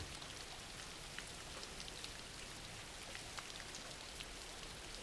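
Steady rain falls without a break, a dense hiss spread across the whole range with faint scattered drop ticks. No voices, just a continuous, even wash of rainfall.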